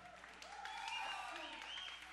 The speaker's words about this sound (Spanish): Muchísimas gracias. El aplauso para